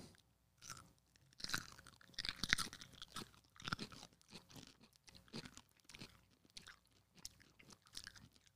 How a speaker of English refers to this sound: We're all going to take a nice, delicious bite of this pickle, and we're going to talk about why we're eating pickles.